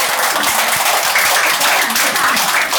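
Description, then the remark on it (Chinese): An audience applauds steadily to encourage and welcome a trainee, a dense, continuous patter of many hands clapping at an even loudness throughout, with a faint hint of voices underneath. “让我们给他掌声鼓励，欢迎！”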